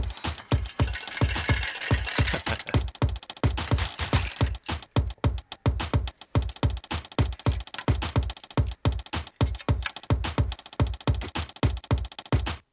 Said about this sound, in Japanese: でさらに同じく吉田さんのペットボトルの音ここにね鍋お兄さんの両替の音が入ってきます